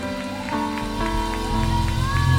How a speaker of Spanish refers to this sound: Dele un aplauso bien fuerte al Señor. Bien fuerte, como que somos miles de miles.